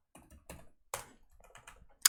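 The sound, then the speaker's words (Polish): Quick keyboard typing and mouse clicks on a computer, a handful of separate bursts with short pauses between, ending in one sharp click. No one speaks. “tylko najpierw może dla bezpieczeństwa, dla bezpieczeństwa dam na razie samą gębę a tu sobie zacznę klikać”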